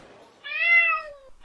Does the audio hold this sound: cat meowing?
yes